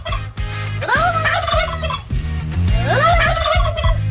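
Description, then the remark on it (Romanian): Listeners' recordings, played on the Morning Glory radio show, of people imitating turkey gobbling with rapid, warbling vocal bursts, repeated in two loud rounds over a steady musical background. “Uh, avem înregistrări de la ascultători care pur și simplu se transformă în uh, curcan”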